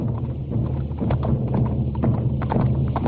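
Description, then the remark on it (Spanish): Steady clip-clop of the hooves of a horse ridden by General Ben Yusuf as he approaches the centre of a square at a fortress in Africa, striking the ground in a regular walking rhythm, moderately loud, with no voices present. “El general Ben Yusuf se acerca a caballo hasta el centro de la plaza.”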